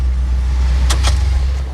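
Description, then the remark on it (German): A car engine rumbles steadily as the vehicle pulls up and parks on the opposite side of the street, with two short scraping bursts partway through and no voices. “Der zweite Detektiv parkte den Wagen auf der gegenüberliegenden Straßenseite.”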